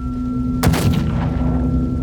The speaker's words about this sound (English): The force of the explosion sends me hurtling backward, and when I regain my senses, I see a huge plume of fire rising up through the atrium.